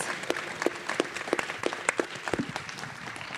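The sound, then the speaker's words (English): Audience applause for speakers: a dense crackle of many hands clapping, with a few sharper, louder claps standing out at an irregular rhythm over a steady wash. The applause holds fairly even throughout. “so let's give a round of applause for these speakers”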